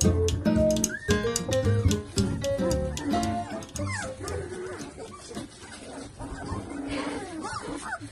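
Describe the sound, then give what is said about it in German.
Several puppies of a breeder's first litter whimper and yip at once, an overlapping chorus of high squeaky cries that is busiest early on and continues in thinner, wavering whines to the end. “Ja, und ihr habt ja schon mitbekommen, wir haben einen A-Wurf, also unser erster Wurf ist das.”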